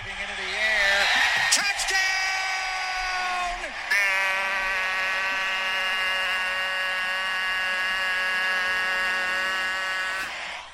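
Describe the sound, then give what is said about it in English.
A person imitates a foghorn with a long, loud, droning vocal blast, steady and low with buzzy overtones, held for several seconds after a brief warbling start. “doing the foghorn.”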